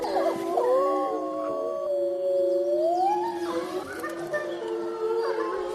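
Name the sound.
wolf howling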